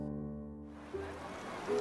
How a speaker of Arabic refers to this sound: هنا يلتقي السحر والجمال البحر لا يهدا انه ينادي روحي منذ ان رات عيناي النور في ذلك المنزل القريب من شاطئه